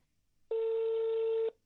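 A single steady electronic telephone tone as a phone call is connected sounds for about one second, mid-pitched and fairly loud, with silence around it and no talking.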